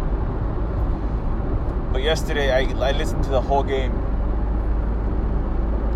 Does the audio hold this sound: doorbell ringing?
no